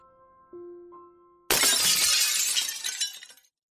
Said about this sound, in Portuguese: Nas primeiras luzes desse dia, mesmo apesar de estar dormindo, um som de vidro se quebrando.